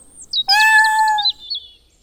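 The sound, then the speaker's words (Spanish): Small birds in a garden, being scared by the cat Sakuchan, chirp in quick, high twittering bursts, with a louder, longer tonal call rising in the middle before the chirping trails off. Fairly clear, with no one talking. “¿Espantando pajaritos en el jardín?”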